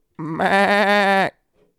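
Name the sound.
goat bleating sound effect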